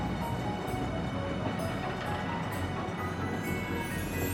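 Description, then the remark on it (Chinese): A train rumbles steadily and quickly along the line, a dense, continuous roar with faint rhythmic clatter and metallic squeals, holding a constant loudness with no voices. “火车哐当哐当哐当哐当的迅速的沿线行驶。”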